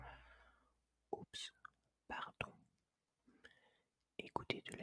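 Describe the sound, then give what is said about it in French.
Breathy whispering broken by sharp wet mouth clicks and smacks in short irregular bursts, like ASMR mouth sounds, with brief silent gaps between. “faire des bruits de bouche du genre.”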